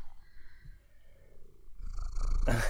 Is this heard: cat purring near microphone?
yes